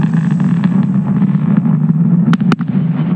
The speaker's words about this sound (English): Two side boosters landed back at the Cape, sending sonic booms as far as Orlando.